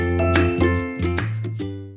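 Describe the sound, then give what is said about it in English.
A quick run of bright bell dings, about five or six strikes in a lively rhythm, each with a ringing metallic tone that overlaps the next. Fairly loud, with no voices. “This week's episode, can I get a bell ding for that?”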